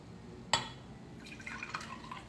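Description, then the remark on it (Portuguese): A sharp glassy clink is followed by a short stretch of soft, bubbling liquid sounds, like water being poured into or sipped from a glass, fairly quiet. “Deixei minha água aqui.”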